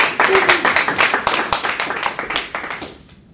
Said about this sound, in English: Please. Oh. Round of applause.